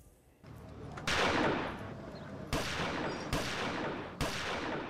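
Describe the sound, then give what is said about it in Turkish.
Four loud gunshots crack out at uneven intervals, each a sharp burst trailing into a rumbling, reverberant decay over a constant noisy background, with no voices; shots fired from behind at Mayor Mustafa Bıyık in Yomra, Trabzon, as he talked on his mobile phone, caught by a security camera. “Aracından indi, cep telefonuyla konuşurken arkasından sıkılan kurşunun sesini duydu.”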